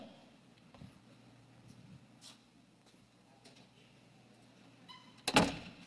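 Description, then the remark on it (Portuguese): A door is handled with a low hum in the background: a few faint knocks and creaks, then a sharp, loud clunk near the end as it shuts. “É uma porta, certo?”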